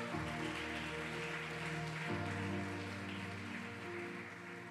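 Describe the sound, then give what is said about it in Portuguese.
Loud, steady applause from a crowd, a dense crackle of many hands clapping, running throughout over sustained musical tones underneath. “Aplauda ele bem forte.”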